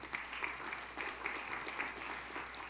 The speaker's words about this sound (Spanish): Denle un fuerte aplauso al Señor.